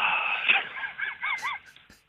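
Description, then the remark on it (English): A dog named Benji barks in a quick series of short, high-pitched yelps, four or five in a row, during a phone call to RTE Radio, with no one talking. “no, I'm just laughing the fact that dogs on RTE Radio.”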